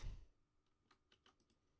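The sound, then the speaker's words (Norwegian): A short burst of typing on a computer keyboard: half a dozen quick, light key clicks in an uneven rhythm, fairly quiet, after a brief low thump at the start. “Og da kan jeg komme med min eh, nominasjon først, som at dere får tid til å skrive.”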